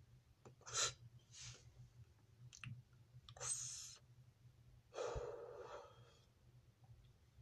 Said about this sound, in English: Oh, fuck, I gotta stretch. Sound like I had an orgasm in the fucking audio, I bet.